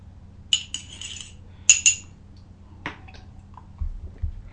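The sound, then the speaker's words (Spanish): A few light clinks of a cup, then a short, soft slurp of coffee, the second sip of the day, followed by low muffled thumps as the cup is set down; no one speaks. “Bueno, me extendí un poco el primer tema, así que me voy a dar el segundo sorbito”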